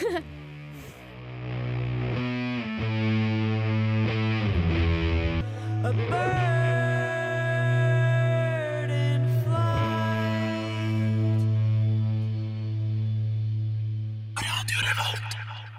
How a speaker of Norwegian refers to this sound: Stoner Doom med, eh, Stoner, ja. med kvinnevokal og kvinnebesetning. Det er ganske spennende. Det er kult. Herlikt.